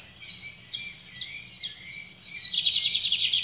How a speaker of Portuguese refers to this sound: E é isso que eu aprecio em mim quando eu ouço os sons da natureza, os sons dos pássaros,